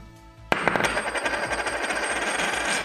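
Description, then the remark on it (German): A Krugerrand gold coin drops onto a hard surface from about 10 cm, striking with a sharp, loud clink, then rattling in quick bounces while a bright metallic ring lingers for a couple of seconds. “Das ist der Krügerrand und jetzt im Vergleich dazu nochmal der Maple Leaf.”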